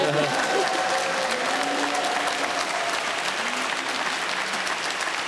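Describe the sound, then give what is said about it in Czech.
Steady, dense applause from an audience, invited to clap as Sparta supporters, fills the whole stretch, a continuous crackle of many hands clapping at an even loudness, with faint voices murmuring underneath. “Můžete tleskat spartianský.”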